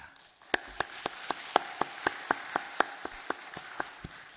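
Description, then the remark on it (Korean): A church audience applauds in thanks to God for opening the new week, with many hands falling into a steady, even beat of about four claps per second over a dense wash of scattered clapping. No voices are heard. “새 한 주간을 열어주신 우리 하나님께 감사의 박수 올려드리겠습니다.”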